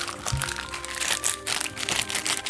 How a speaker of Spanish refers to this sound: Encuentro una bolsita. Mira, es una, bolsita de, la, de los sobres.